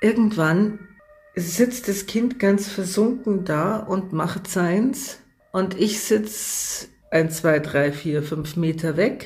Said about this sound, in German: Und irgendwann, so war es auch heute wieder, Sie hören jetzt im Hintergrund, ja, ein Sanka fahren.